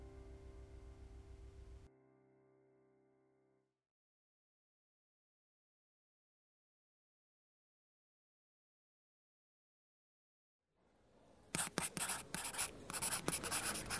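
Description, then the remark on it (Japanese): A pen scratches across a paper application form in quick strokes near the end, after a soft tonal sound fades out and a long stretch of silence. “申し込み用紙に記入された名前を恐る恐る見る。”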